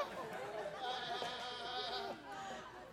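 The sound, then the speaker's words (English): A crowd of people imitating sheep, overlapping wavering bleats rising together for a couple of seconds, loud, with some chatter and laughter mixed in before the noise tapers off. “Y'all are awesome sheep.”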